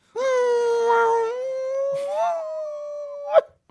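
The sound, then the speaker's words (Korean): A man imitates a dog whimpering toward a beagle to calm it, with one long, drawn-out nasal whine that holds steady, lifts slightly near the end, then breaks off abruptly. Fairly loud, and heard alone. “강아지 소리 형저 잘하시잖아요. 한번 보여주세요. 비글한테.”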